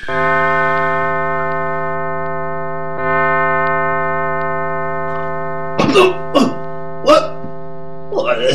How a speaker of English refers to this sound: The neighborhood church clock strikes two.